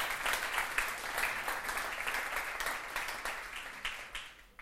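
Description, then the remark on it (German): An audience applauds the worship band, a dense, steady crackle of many hands clapping at once that holds for several seconds before thinning out slightly at the end. No voices are heard. “Gib mal einen mächtigen Applaus für die Band.”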